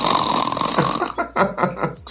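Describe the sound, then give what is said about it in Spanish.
A person imitates gentle snoring with their voice, making a few short, raspy, rhythmic snore sounds with no talking. “Pero ronco tiernamente digo.”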